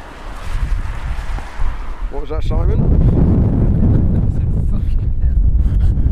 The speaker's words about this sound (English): it is still windy unbelievably windy. Yeah. I don't think I don't think this audio is going to be usable. The wind buffering will be just so unpleasant.